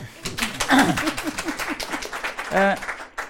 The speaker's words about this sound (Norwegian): Velkommen. Takk. En liten klapp.